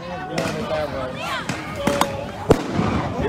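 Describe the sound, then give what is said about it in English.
Several sharp, loud explosive bangs from flashbang grenades go off at irregular intervals during a night street protest, cracking over a noisy background of crowd voices and shouting. “Listening to these flashbang grenades, it hurts our ears feels like we're in the middle of a war zone.”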